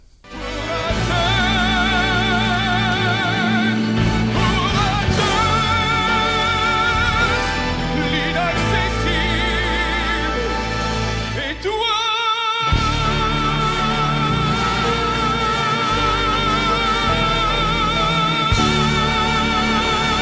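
A male vocalist sings a French chanson with strong vibrato over a full, sweeping orchestral backing, loud and continuous, with a brief pause in the instruments midway before the song swells again.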